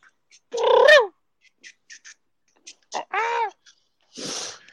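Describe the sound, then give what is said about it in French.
Playful mouth noises: a warbling, gobble-like squeal, scattered tongue clicks and pops, a wavering whoop, then a breathy hiss, with no speech. “Euh, je vous prie de meubler en attendant en faisant des petits bruits avec la bouche.”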